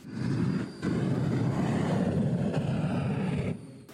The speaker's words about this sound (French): Une voiture qui, le temps d'une journée, se transforme en fusée.